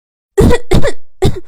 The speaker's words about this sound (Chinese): 从鞋柜里飘出来的味道，正好扑进他鼻子里。小六被熏得咳嗽了几声